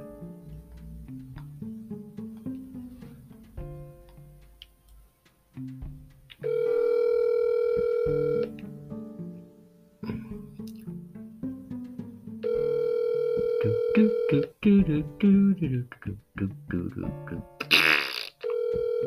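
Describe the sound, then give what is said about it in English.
An outgoing phone call rings twice on the line, each a steady electronic ringback tone lasting about two seconds, separated by a pause, with muffled voices and handling noise in between. “Oh, he ain't gonna answer phone now.”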